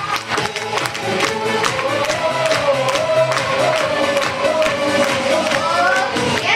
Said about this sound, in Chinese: 让您的掌声越热烈，您的欢呼声越热烈，想大家分享的越彻底，好还是不好？